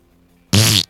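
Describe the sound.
A voice makes a loud, buzzy raspberry imitating a woman's fart while telling a story: one sputtering burst of about a third of a second, low and rough, after a moment of near silence.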